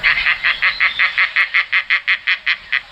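An Egyptian vulture, a highly threatened raptor, calls in a rapid, steady series of about sixteen short, harsh croaking notes, loud, with no other sounds around it.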